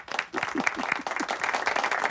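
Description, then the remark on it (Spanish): A burst of applause on the radio show Desayuno Coliantes on RPA, dense steady clapping that stays fairly loud for the full couple of seconds, with a few faint voices mixed in underneath. “un, aplauso para”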